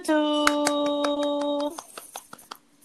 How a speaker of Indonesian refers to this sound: Tepuk tangan semuanya.